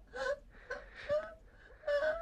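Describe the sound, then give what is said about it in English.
A child crying in a house, in several short, wavering wails and whimpers, rising and falling with brief gasps between them, moderately loud and heard alone without any talking. “In the silence of the house, she heard again the sound of a child crying.”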